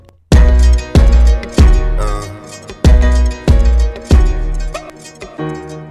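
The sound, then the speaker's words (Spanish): A loud pop song intro playing on the radio, with punchy, full-band chords striking in a steady rhythm about every half second over deep bass, bright, with no voices. “Es un temazo y suena así de bien en las ondas de la más divertida dial”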